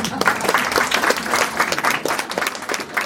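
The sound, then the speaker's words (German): At a career-orientation event, young people break into steady, dense applause for their parents for coming along, many hands clapping at once in a fast, crackling patter that stays loud and even for about three seconds. “Und da könnt eigentlich ihr euren Eltern schon mal einen Applaus geben dafür, dass sie alle mitgekommen sind und da sind.”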